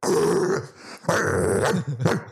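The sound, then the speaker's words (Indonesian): A person imitates a dog with rough, guttural growls and a couple of short bark-like bursts, loud, in about three vocal pulses with brief gaps between them. “Ngegonggong tuh lo baru ngomong dikit dia langsung”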